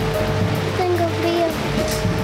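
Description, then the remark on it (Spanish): Steady, dense rain and gusting wind drum on a tarp shelter in cold weather, a continuous rushing hiss with no pauses, while faint voices murmur beneath it. “No se puede dormir con el frío y con la lluvia, ¿verdad?”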